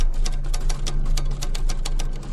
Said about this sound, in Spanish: Al fondo escuchaba cómo tecleaban.